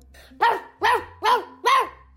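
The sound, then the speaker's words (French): A dog barks four times in a steady rhythm, each bark loud and evenly spaced, with a faint low hum between them and no voices. “L'aboiement, c'est le cri du chien.”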